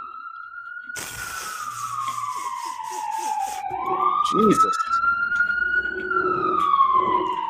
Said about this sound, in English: Might have to wait for the sirens to pass to do this again. Damn.